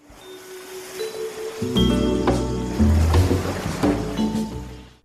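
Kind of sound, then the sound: nature, ocean waves and surf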